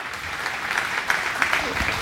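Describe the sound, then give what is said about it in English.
Steady audience applause at North Valley Church, a dense wash of many hands clapping at a constant, fairly loud level with a few sharper claps standing out, and no talking over it. “Hey, guys, give them another big round of applause.”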